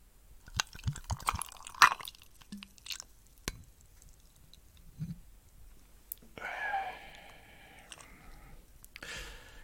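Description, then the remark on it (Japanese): Quiet clinks of glass are followed by a short gurgling pour of Bacardi gold rum from a glass bottle, then a brief second trickle at the end as rum drips from the bottle's mouth, with small drips and handling noises between. “このね、海外の瓶はさ、まあ、海外の瓶に限らないけど、あの水の切れが悪いよねこの口のねが垂れていくんですよ”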